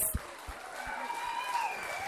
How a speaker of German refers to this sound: So schön bist du da. Geben wir ihr Applaus.